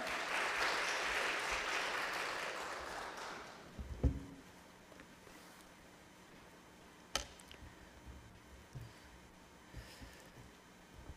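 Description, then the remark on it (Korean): A church audience applauds with dense, steady clapping for about four seconds to welcome a pastor coming up to preach, then it fades out, leaving a quiet stretch broken by a couple of sharp knocks and faint clicks. “나오실 때 큰 박수로 환영하도록 하겠습니다.”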